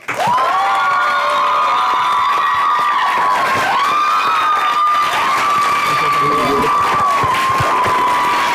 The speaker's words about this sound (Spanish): Un fuerte aplauso para Benny Barra.